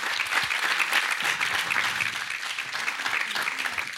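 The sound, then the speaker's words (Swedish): Steady, warm applause from a seminar audience fills all four seconds, a dense wash of many hands clapping at an even loudness with no voices standing out. “Jag tycker de får en varm applåd.”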